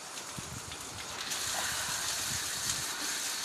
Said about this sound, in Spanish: Esta es la parte que empezamos a lavar el patio. Después viene el cloro.